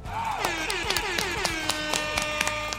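Scattered, uneven handclaps ring out a few times a second over a sustained, wavering tonal sound, like a small group applauding.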